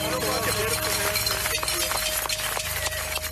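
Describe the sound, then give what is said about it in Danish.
A crowd at a key demonstration shakes many sets of keys at once to make as much noise as possible, producing a loud, continuous metallic jangling and clinking, with a low murmur of voices underneath. “Hvor man står og vifter med nogle nøgler, der larmer, så de kan larme så meget som overhovedet muligt.”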